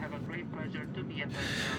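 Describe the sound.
A steady, rumbling airplane cabin drone fills the space during a flight to Israel, with indistinct voices murmuring over it and a brighter rush of air swelling near the end.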